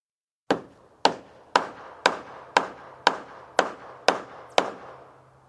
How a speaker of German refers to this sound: Jetzt kommen Hammerschläge, die okay. du möglicherweise gehört hast. Ähm, zwei unterschiedliche. Hier kommt der erste.